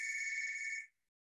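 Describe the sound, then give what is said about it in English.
A landline telephone rings once, a steady, shrill electronic trill lasting just under a second before cutting off into silence, clear, with no one talking. “Oh, great. that's the phone.”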